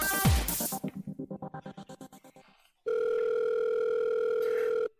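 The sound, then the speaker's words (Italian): A telephone line sounds as a call is placed: a quick swoop and a fast run of dialing beeps, then a brief pause and one long, steady ringing tone, loud, with no voices. “Speriamo che risponda, che ci sia.”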